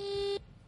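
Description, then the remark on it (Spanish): A telephone dialing tone as a phone call is placed: one steady, mid-pitched electronic beep holds loudly for about a third of a second, then cuts off abruptly into quiet background hiss. “Veamos, ahí estoy llamando.”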